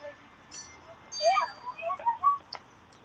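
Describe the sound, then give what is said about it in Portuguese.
A clock chime on top of a building plays a few faint, wavering notes of the Twinkle Twinkle melody as it marks nine o'clock. The tones are slightly out of tune and distorted and come from above, drifting over a soft, steady outdoor background. “Ah, então é, deve ter algum relógio em algum topo de prédio aqui ah, que mostrou a hora e tocou a música, porque o, o som tá vindo de cima.”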